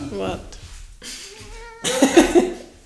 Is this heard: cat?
yes